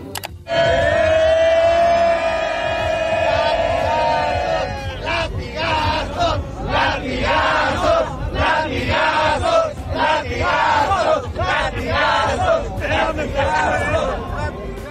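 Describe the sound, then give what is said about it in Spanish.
A large crowd roars in one long, sustained, rising shout, then breaks into a loud rhythmic chant of repeated shouted bursts, "latigazo, latigazo", that continues steadily to the end. “Entonces la gente gritaba, no, pues para qué les cuento, a ver, póntelos los Agustín, para que veas cómo gritaban.”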